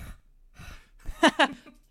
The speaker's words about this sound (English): and something we always do is we give we give we give people air from our lungs. Would you like to help us give people air from your lungs, which is just breathing into your microphone, basically. so we give you air from our lungs.